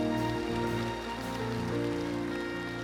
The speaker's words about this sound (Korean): 우리에게 그런 인생의 기회를 주신 우리 하나님 아버지 앞에 감사와 영광의 박수 올려드립니다